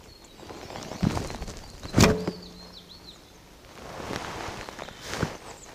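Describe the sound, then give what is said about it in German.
An arrow strikes a foam 3D bear target with a single sharp, muffled thud, followed by softer knocks and rustles outdoors while birds chirp faintly in the background. “Ihr habt hoffentlich auch den Einschlag im Tier gehört. So ein schönes, warmes Flocken.”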